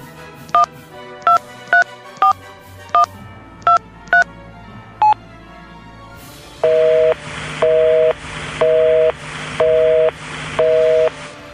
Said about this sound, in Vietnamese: một người phụ nữ gọi điện đến số điện thoại di động của em rể không ai nghe máy chị lại gọi vào số di động của em dâu tiếng chuông điện thoại vang lên kéo dài rồi tắt không người nhấc máy